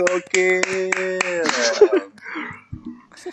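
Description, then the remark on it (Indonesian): A quick series of sharp hand claps in an uneven rhythm, fairly loud, done as a chanted clap cheer, mixed with people talking and singing over them, followed by more chatter. “Tepuk iya, iya. dong.”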